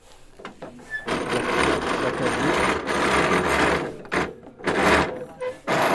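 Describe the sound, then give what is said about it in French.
A cabinet scraper rasps across a wooden board in a run of steady, loud scraping strokes, with brief pauses between passes near the end. A broad, dry hiss with no voices. “c'est l'avantage du racloir, c'est que tu peux travailler dans tous les sens”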